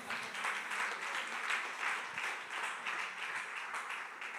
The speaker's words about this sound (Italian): E quarto e ultimo personaggio, che è, in realtà è sociale, ma non è sociale da questa sera, che è allontanato. Facciamo un applauso.